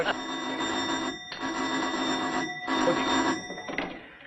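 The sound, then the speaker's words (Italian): A doorbell rings insistently in long, bright, metallic bursts, about four rings separated by brief pauses, loud and steady, with no voices. “È il campanello.”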